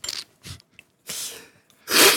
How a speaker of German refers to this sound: Aber sehr gesellig. Man schnieft zusammen.